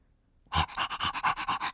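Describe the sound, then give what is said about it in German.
A dog pants quickly and steadily, about eight breathy huffs in a fast, even rhythm that starts suddenly after a brief silence. Fairly loud, with no voices. “Rocket, hechelte der Hund.”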